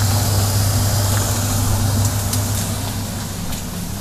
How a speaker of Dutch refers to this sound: je hoort het gehakt. Dus dat is, het werkt wel. Een beetje.